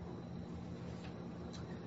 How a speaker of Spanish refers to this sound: Perdón, voy a encender el aire acondicionado porque me tengo un calor aquí. Y si además ahora bebo agüita, gracias agüita, voy a encender el aire acondicionado un poquito. No creo que se note mucho